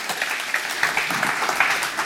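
An audience applauds steadily, many hands clapping in a dense, bright patter that holds at an even, moderate loudness for a couple of seconds.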